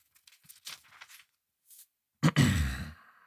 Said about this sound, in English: Page turn.